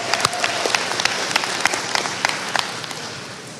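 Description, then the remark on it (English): An audience applauds the sponsors steadily, many overlapping claps forming a dense, sustained wash of sound with a few sharper individual claps standing out. “So thank you very much, and give the sponsors a big hand.”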